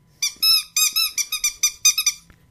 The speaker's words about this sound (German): dieses Geräusch von so einem Hundespielzeug, jeder hat schon mal irgendwie gehört oder irgendwo in der Hand gehabt oder gesehen oder so, dann weiß man Bescheid. Ich finde es ein bisschen übrigens ein bisschen laut, deswegen aufpassen.